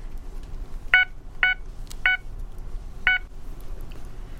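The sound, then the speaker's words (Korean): Four short electronic keypad beeps at uneven intervals as a password is entered, each a bright, multi-tone chirp like a phone or ATM keypad, over a low, steady background rumble with no talking. “하연준이 사라진 곳에서 한동안 넋이 나갔던 채율은 집으로 돌아가는 길에 출근길을 찾아 하연준이 말해준 대로 비밀번호를 입력해봤다.”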